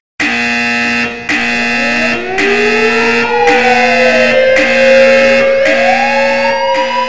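A loud electronic alarm blares continuously, steady pulsing buzzes layered with a wailing tone that sweeps up and down, harsh, with no voices.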